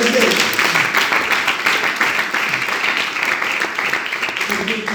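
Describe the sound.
A crowd of people claps steadily for several seconds, a dense, continuous wash of applause with some voices mixed in underneath.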